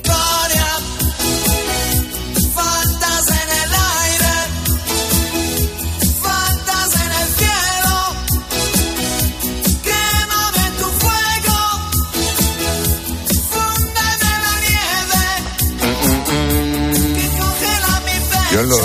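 A pop song in Italian, by a singer who has performed at the San Remo festival, plays loud and continuous, a lead singer's voice carrying the melody over a full band arrangement with steady drums and lush backing instruments.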